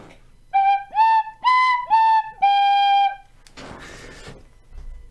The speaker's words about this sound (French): on commence tout de suite avec un jingle.